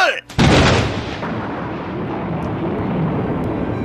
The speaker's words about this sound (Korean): 야, 아, 진짜 시끄럽다 정말. 진짜 뿌리 이 벼락 소리에 그냥 뿌리가 다 부러졌으면 좋겠네.